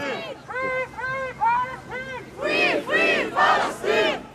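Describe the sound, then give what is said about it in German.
A crowd of about 1,500 people at a rally on the Opernplatz in Frankfurt, Germany, many waving Palestinian flags, chants in rhythmic unison, repeating a short slogan in steady bursts that grow louder and fuller partway through, with open-air echo around the massed voices. “Immer wieder gibt es Applaus und Sprechchöre.”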